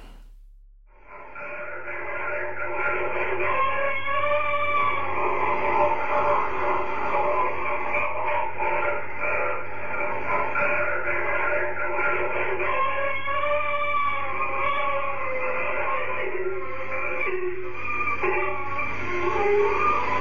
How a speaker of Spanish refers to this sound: es una psicofonía muy larga